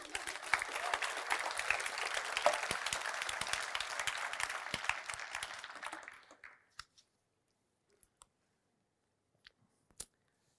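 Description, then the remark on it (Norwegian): An audience breaks into steady applause, many hands clapping densely for about six seconds before it stops abruptly, followed by a few faint scattered claps. “Det er verdt en klapp.”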